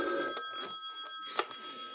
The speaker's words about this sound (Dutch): Eh, verdorie, telefoon altijd.